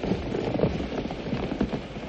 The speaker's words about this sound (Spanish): Llega Lucio a caballo. Varios jinetes llegan tras él.